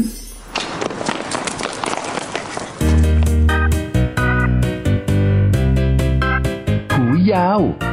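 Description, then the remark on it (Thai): Quick, rhythmic running footsteps patter along for a few seconds as someone runs ahead of friends to the other side of a playground, before bright, bouncy music takes over and carries on to the end. “วิ่งนำหน้าเพื่อนๆมาที่อีกด้านหนึ่งของสนามเด็กเล่น”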